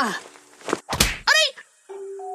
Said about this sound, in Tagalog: Sumusobra na kayo matanda kayo ah! Isa pang sampal nyo sa akin, ikukulong ko kayo sa banyo.